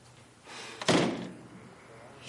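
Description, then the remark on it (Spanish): An office door swings shut with a single solid thud, preceded by a brief rustle of movement, then a quiet lingering tail. “cierra la puerta del despacho”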